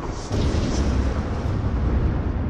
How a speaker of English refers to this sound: I create a burst of thunderous sound that can be heard up to 100 feet away.